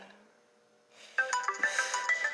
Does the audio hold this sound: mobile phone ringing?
yes